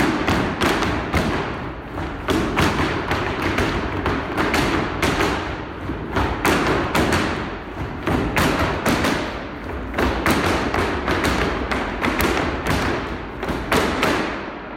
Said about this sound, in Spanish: Chicos, el repiqueteo con más fuerza y el zapateo más limpio.